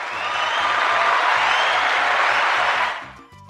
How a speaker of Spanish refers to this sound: Un aplauso para él.